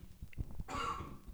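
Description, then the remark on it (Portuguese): A single harsh cough bursts out with a short throaty lead-in, a loud breathy blast lasting under half a second, then fading into quiet background noise. “Saúde, saúde. Obrigado, aí, obrigado.”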